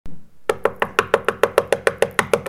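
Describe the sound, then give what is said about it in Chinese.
Rapid, forceful knocking on a toilet door: about fourteen hard, evenly spaced raps in quick succession after a brief quiet start, loud and insistent with no voices. “一阵又急。又快又大声的敲门声，真的彻底的把我激怒了。”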